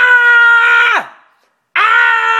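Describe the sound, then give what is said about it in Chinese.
A voice imitates an angry child screaming: a loud, sustained shout that drops sharply in pitch as it ends, then after a short silence a second loud scream begins. “如果这时候孩子生气大叫啊”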